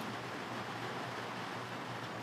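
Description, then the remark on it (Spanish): Steady rain falling outdoors, a dense, even hiss of countless drops that fills the whole moment without pause or change, with no voices over it. “vamos a dejar que se oiga un poco la lluvia.”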